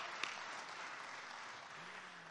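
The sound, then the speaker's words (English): Steady audience applause at a church service for the children who took part, a dense crackle of many hands clapping at an even level for the whole stretch, with no voices standing out. “Listen, they need another round of applause, don't they?”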